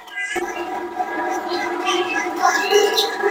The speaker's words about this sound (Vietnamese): cái này là em đang xay thịt heo